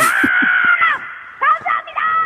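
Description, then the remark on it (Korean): A teacher, calling in to a KBS radio show, loudly imitates a crow's cawing as a final encore: a drawn-out harsh caw followed by two shorter, strained caws, with no other talk. “앵콜로 마지막으로 까마귀 소리 듣고 끝낼게요.”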